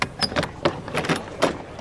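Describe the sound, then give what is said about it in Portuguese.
Several sharp knocks rap on a door at an uneven pace, fairly loud, with faint rattling between them and no voices. “Quando Pemberton se prepara para provar seu xarope novamente, alguém bate na porta.”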